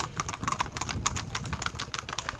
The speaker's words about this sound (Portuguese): os cavalinhos passar aqui, um monte.